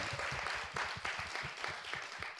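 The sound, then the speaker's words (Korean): An audience breaks into sustained applause, many hands clapping together in a dense, steady patter with faint rhythmic pulses, moderately loud and without any voices over it. “우리 한 박수 한번 다시 네, 부탁해 네, 주세요.”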